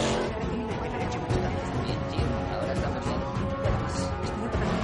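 A car engine roars steadily for about five seconds as Toreto accelerates, a loud, dense rumble with a faint whine on top, like a vehicle pushing hard on the accelerator.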